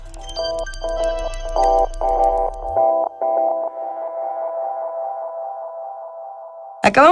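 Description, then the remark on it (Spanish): A nighttime street soundscape of San Telmo, Argentina: a low rumble underneath short, rhythmic bursts of reedy harmonic chords, which settle into one long sustained tone before a brief louder burst at the end. “de escuchar esta postal sonora de San Telmo de Noche.”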